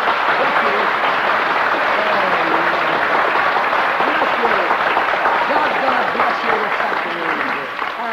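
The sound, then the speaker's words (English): Sustained applause from an audience welcoming a woman speaker fills the whole stretch, a dense, steady wash of many hands clapping at once, with some indistinct voices mixed in beneath it. “Give her a clap and make her welcome.”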